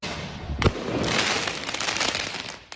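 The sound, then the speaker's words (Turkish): A sharp firework bang bursts out early, followed by a sustained crackling, hissing roar of more fireworks and commotion that gradually thins out, as angry protesters in Paris, France attack police with stones and fireworks in street clashes after midnight. “Öfkeli grup polislere taş ve havai fişeklerle saldırdı.”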